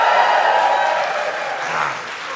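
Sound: audience cheering and screaming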